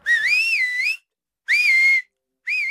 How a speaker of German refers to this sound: Ob der Laut ein Pfiff oder ein Wort ist, macht für den Border Collie keinen Unterschied. Deshalb kann er sich auch Begriffe gut merken.